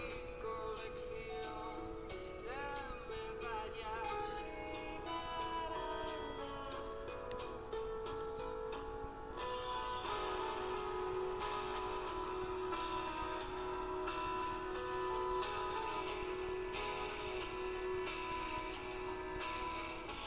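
A pop-rock song plays steadily at a constant level, with layered sustained instruments and a light ticking rhythmic pulse running through it; no one talks over the music.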